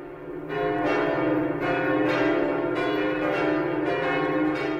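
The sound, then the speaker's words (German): The large bells of the south tower of Notre Dame cathedral ringing loudly and continuously, their heavy overlapping strikes recurring about once a second with a dense, lingering metallic hum and no voices. “den Glocken des Südturms von Notre Dame.”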